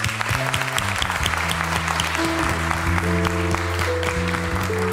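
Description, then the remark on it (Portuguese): An audience applauds steadily for the Lord, a dense, continuous wash of clapping, while sustained low organ or keyboard chords hold and shift underneath. “Nós salve de palmas ao Senhor.”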